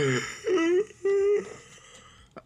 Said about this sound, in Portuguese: Ah, hoje eu bocejei.